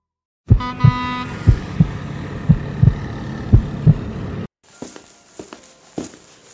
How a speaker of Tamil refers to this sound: இதோ நடக்கிற சத்தம் கேட்குதா அதுதான் நான்